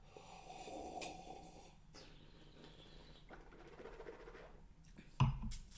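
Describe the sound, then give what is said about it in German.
A long, airy slurp of red wine, a soft hissing suck of air drawn over the liquid for several seconds, ending in a brief louder gulp. No one speaks. “So richtig schön mit Schlürfe.”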